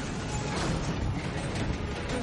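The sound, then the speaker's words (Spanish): A huge freight train heading to the city rolls along the rails with a steady, dense rumble and rattling clatter that holds at an even loudness throughout, with no voices. “Eric dispara al tren que se aleja.”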